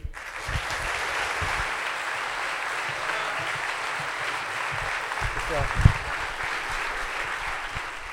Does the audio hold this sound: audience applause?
yes